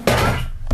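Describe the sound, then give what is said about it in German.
A bottle gets knocked over with a sudden hollow thunk that rings out briefly, then a second softer knock as it settles. No one speaks. “So meine Flasche gerade umgeschmissen.”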